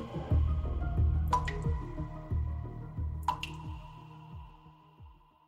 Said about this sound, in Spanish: A pocos metros, una grieta forma una gotera que desde el segundo piso comienza a drenar el agua.